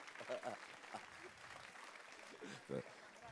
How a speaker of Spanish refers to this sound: Entonces, aplausos para el guayaco. Este es de Guayaquil.